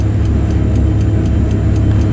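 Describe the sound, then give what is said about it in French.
A clock ticks in a steady, quick rhythm, about four ticks each second, crisp, over a constant low rumble like an engine droning underneath. “Une grenade, une bombe à retardement. J'ai parfois l'impression de faire tic-tac.”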